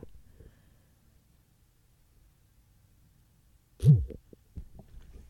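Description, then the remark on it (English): A single short, low buzzing thump stands out near the end of a mostly quiet stretch: an Android smartphone vibrating once as it powers on after its power button is held down, followed by a few faint soft knocks. “it vib- it vibrates to let you know that it is turning on.”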